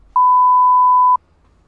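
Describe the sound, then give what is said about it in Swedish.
A single censor bleep: one steady, pure high-pitched tone that holds loudly for about a second and then cuts off abruptly, with no voices audible around it. “eller ja, det här kanske jag också kan blipa eftersom att då, man kanske förstår vem det är, men hon sa så här.”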